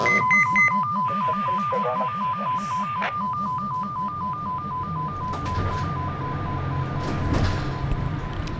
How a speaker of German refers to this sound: Also der Pieps hat gerade geklingelt. Aber es war kein Einsatz, sondern eine Gebietsabsicherung.